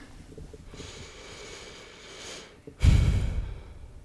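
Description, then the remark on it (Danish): Two deep breaths taken with eyes closed during a guided exercise: a long, soft airy inhale lasting a couple of seconds, then a heavier, louder exhale that whooshes out like a sigh. No talking. “Og så øh, tage nogle øh, dybe vejrtrækninger.”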